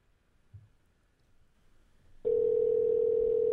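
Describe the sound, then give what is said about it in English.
After a couple of seconds of near silence with a faint low bump, a loud, steady electronic ringback tone of an outgoing phone call starts abruptly and holds unbroken to the end while the caller waits for an answer. “I can't wait to hear it ring.”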